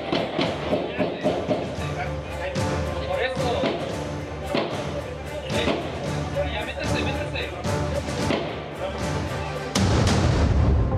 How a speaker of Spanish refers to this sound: Los vecinos se, resguardaron durante el tiroteo, no se reportaron lesionados, hay una mujer detenida. Se armaron los balazos, se armaron los balazos. Están en la azotea, están en la azotea. ¿Se escuchan? ¿Se escuchan? Sí.